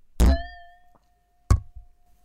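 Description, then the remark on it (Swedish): Two glasses clink together twice in a toast, about a second apart; the first knock leaves a clear, high ringing tone that lingers and slowly fades under the second, duller tap. One glass is full of juice (saft). No voices. “Och ska vi skåla också? Jag vill skåla.”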